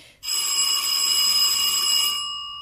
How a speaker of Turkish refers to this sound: Zil.